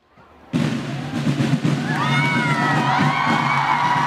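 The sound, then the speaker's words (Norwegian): A large crowd in Trondheim, Norway, erupts into loud, sustained cheering and shouting as Ari Behn arrives at Nidaros Cathedral (Nidarosdomen) for his wedding, with high whoops and excited voices rising over a dense roar that continues steadily after a sudden onset. “Ari Behn ble møtt med voldsom jubel da han ankom Nidarosdomen noen minutter før sin brud.”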